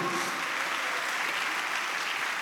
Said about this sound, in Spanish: ¿Cuántos se dan un aplauso a Dios por eso, amado hermano? A su nombre, gloria.